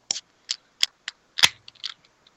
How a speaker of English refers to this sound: Oh, you know what? I, I keep doing that. I keep opening the beer on the wrong side. That's okay. We heard it just fine.